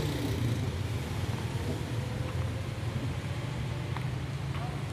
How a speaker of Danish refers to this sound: Nu går jeg hen til den der, der sagde noget lige før. Det er altså en, der sidder lidt længere væk, det her. Men den siger den der brølæbelyd.